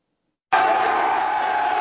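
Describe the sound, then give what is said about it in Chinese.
Baseball fans cheer outside Kyocera Dome Osaka as the Hanshin Tigers win the Japan Series, their first title in 38 years: after a half-second of silence, a loud, dense crowd roar bursts in abruptly and holds steady, a continuous wash of many voices with no single speaker standing out. “大阪京瓷巨蛋外爆出热烈欢呼，日本职棒周日总冠军战由阪神虎队拿下冠军，球迷激动到不行，甚至当场逼出眼泪，因为这场胜利等了三十八年。”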